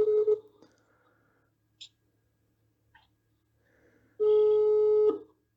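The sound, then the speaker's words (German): A telephone ring tone sounds as a caller would hear it: a steady electronic beep at the start, a long pause with faint clicks, then a second long beep, and no one picks up. “Ja, geht jetzt nicht dran, oder wie?”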